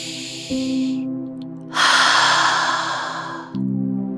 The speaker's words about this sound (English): So, to begin, let's take three deep breaths. One two, three,